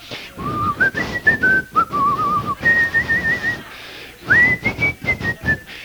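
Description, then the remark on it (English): Someone whistles a cheerful, bouncy tune, the pitch gliding up and down through several short phrases with a few brief pauses between them. No one speaks. “Can you whistle?”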